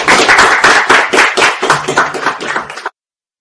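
Audience applause for a maestro: a loud, dense patter of many hands clapping at once, steady for about three seconds before cutting off abruptly into silence.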